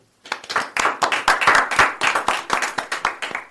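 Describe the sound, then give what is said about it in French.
A small group of people applauds themselves after their first live broadcast, a burst of dense hand claps that starts abruptly and holds steady for a few seconds with no talking. “Alors déjà, merci et vous pouvez vous applaudir.”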